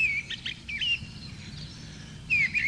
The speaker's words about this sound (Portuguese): O aroma dos frutos se misturam assim como o canto dos pássaros, na manhã ensolarada e tranquila da província.